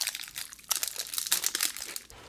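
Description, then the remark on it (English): A granola bar wrapper crinkles and crackles in dense, bright bursts mixed with crunchy chewing of the granola bar, a continuous rustling texture with sharp spikes and no talking. “Sorry, I'm chomping my granola bar.”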